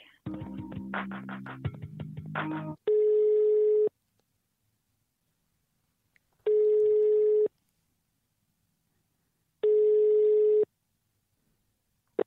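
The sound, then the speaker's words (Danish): A telephone ringback tone sounds three times, each a steady one-second buzz separated by long silent gaps, as a call is transferred again from a central switchboard to someone who has not picked up; preceded by a short burst of hold music or muffled clatter. “Jeg kan prøve at stille om til ham igen, eller så skal du forsøge ham lidt senere.”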